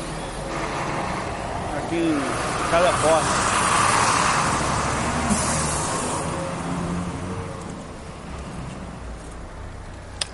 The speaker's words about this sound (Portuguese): Uh, agora não dá mais, vou subir na calçada ali. esperar o busão passar tal. Não morrer. Isso aqui é perto, isso aqui é Rua do Futuro